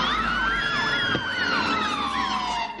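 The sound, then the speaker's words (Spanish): Several police car sirens blare at once as the cars pull up and stop on a street, a fast rising-and-falling yelp weaving over a slower steady wail, with a low engine rumble beneath. They hold loud throughout, then trail off at the very end. “Varios coches de policía se detienen en una calle.”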